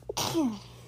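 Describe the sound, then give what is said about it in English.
A single sharp, fairly loud sneeze: a short intake, then a sudden breathy burst that trails off into a brief voiced tail, with nothing else around it. “Bless you.”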